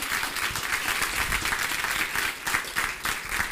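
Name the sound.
applause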